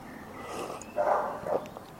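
A dog barks, about three muffled barks in quick succession, heard outdoors from a veranda against a faint background hum with no one talking.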